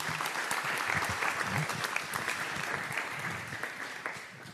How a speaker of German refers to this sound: Applaus